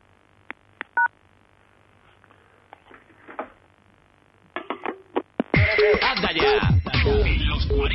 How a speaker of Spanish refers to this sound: Pues pulse almohadilla, o sea, cuchinet, acto seguido cuelgue el auricular